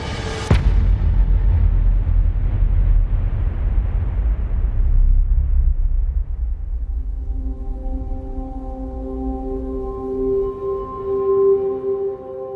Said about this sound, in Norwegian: Men dessverre så har begge to såpass høy fart at det er umulig å unngå kollisjon. Og for å berge livet kaster begge togførerne seg ut av toget, lander i snøen, og mens de ligger der, da ser de at katastrofen inntreffer. To tog krasjer i hverandre.